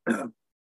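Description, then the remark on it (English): A single short throat clearing, a brief rough guttural burst lasting about a quarter second before silence. “sorry, sorry, you're having a hard time.”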